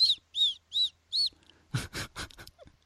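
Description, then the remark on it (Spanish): A voice imitates a whistled 's' sound four times in quick, evenly spaced bursts, each a short, high, piercing hiss-whistle, mimicking people who whistle their s sounds when speaking, followed by a brief stretch of talking. “La gente que hace heces silbadas.”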